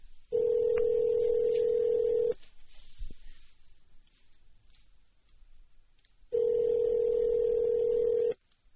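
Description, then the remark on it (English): A repeat phone call rings out unanswered: two long, steady ringback tones of about two seconds each, separated by a quiet pause of several seconds, clear as if heard through the handset. “You know, I'm going to call back once more just in case she was just like not answering.”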